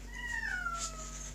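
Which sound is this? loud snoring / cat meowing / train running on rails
cat meowing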